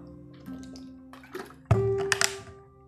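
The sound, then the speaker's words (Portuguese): Someone drinks water, with a few short wet gulps and splashy bursts over a steady low electrical hum, growing louder near the end. “Ah, que delícia, beber água.”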